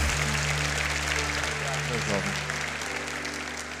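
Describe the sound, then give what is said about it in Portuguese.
Sustained audience applause fills the whole stretch, a dense wash of many hands clapping at steady volume, with a faint hum and some indistinct voices mixed underneath. “Pode aplaudir essa mãe maravilhosa que nos ama.”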